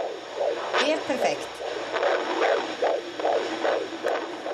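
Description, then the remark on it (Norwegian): A rapid, whooshing fetal heartbeat pulses through a Doppler speaker at a midwife's office, about two beats per second over a steady background hiss, with a brief scraping rustle early on. A probe with a dab of gel is held against the pregnant belly. “Og magien ved et ufødt livs hjerteslag kommer ut av høyttaleren hos jordmor.”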